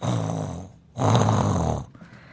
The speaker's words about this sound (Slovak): A, e, a z tretieho kočerca, kde je eh, naša rúžová prasnica Roza, tak z nej sa ozývali skôr také zvuky takého oddychovania, takého